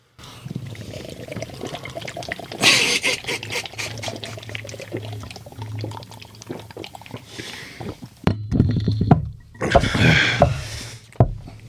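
Gulping and sloshing of very cold drinks being chugged from cans, a steady wet gurgle with louder bursts of swallowing near the end, no talking.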